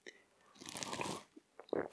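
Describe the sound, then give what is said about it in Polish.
A short slurping sip of tea lasting about half a second, a soft breathy draw of liquid, followed by a few small mouth and cup sounds. No talking. “Łyk herbaty”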